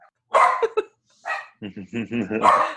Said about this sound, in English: I uh, I was able to activate the actual dogs with my, my growling.